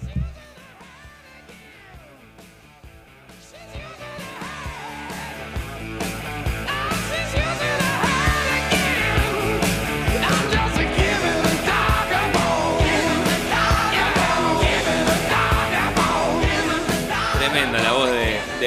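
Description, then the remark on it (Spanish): A hard rock record released on 25 July 1980, with shouted vocals, starts moderately, then surges around six seconds into a loud, dense wall of distorted guitars and drums that drives steadily to the end. “ahí metiéndole full power.”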